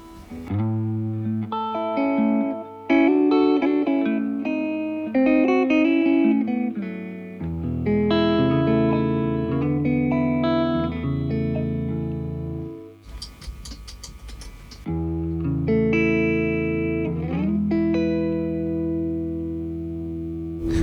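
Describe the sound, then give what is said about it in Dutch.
An electric guitar with flatwound strings plays a run of warm, sustained chords and single notes, fairly loud, with a short noisy scratch partway through and no talking. “voor nu vind ik het wel een mooi, eh, mooi geluid en het speelt lekker die flatwand.”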